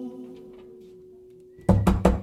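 Four loud, quick knocks on a door in a steady rhythm, following a second and a half of low, quiet hum.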